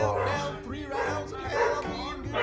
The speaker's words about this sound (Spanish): Ese puto perro de fondo, güey, está chingando la grabación.